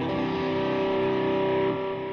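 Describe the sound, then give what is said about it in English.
A sustained, distorted electric guitar chord rings out with a thick wash of repeating delay, holding steady and loud before easing down slightly near the end, with no talking. “I like to use this delay though.”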